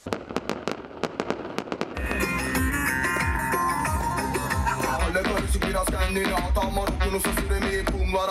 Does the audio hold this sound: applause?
no